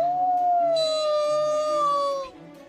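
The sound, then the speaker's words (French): A long, loud howl rings out in the night, holding a steady, slightly falling pitch for about two seconds before breaking off, with a faint low drone underneath and no talking. “Un terrible hurlement déchira alors la nuit.”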